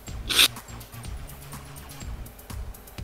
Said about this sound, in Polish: kiedy tylko padacie do środka, to słyszycie takie nieprzyjemne kli kliknięcie odbezpieczanego zamka u automacie.